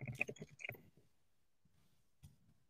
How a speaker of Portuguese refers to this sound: eu não sei se dá para ouvir muito o barulho do teclado, desculpa se tiver.